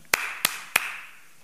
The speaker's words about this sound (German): Zum Beispiel in Japan, wenn man in Japan ist, in den Tempel geht, man steht da, sieht die vielen Japaner, die dahin zu dem Tempel kommen und dann sieht man, wie sie klatschen.